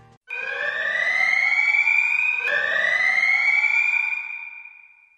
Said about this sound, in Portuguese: E numa nota pessoal, que hum. vou sublinhar, numa nota pessoal, toca a sirene de novo aí, Modena, só para deixar bastante claro.